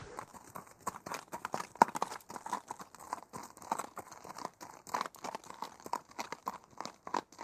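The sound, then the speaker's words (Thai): A horse hooves clip-clop sound effect plays in a steady, quick rhythm of sharp overlapping knocks, even in loudness throughout, with no voices over them. “เนื่องจากว่าเป็นการพูดถึงเรื่องราวเส้นทางโบราณกันนะครับ เพราะฉะนั้นก็เปิดเสียงม้าสร้างบรรยากาศหน่อยนะครับคล้ายๆ กับว่าย้อนกลับไปยุคอดีต”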